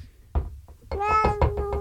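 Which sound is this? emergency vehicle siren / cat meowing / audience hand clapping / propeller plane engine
cat meowing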